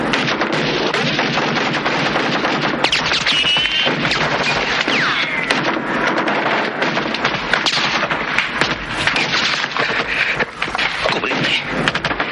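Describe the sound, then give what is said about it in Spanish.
Sustained AK-47 rifle and M60 machine gun fire crackles nonstop in rapid, overlapping bursts, loud and dense, with sharper shots cutting through a constant barrage and faint voices buried underneath, as fighters fire toward where enemy shots come from. “Empiezan a disparar hacia la zona de la que provienen los disparos.”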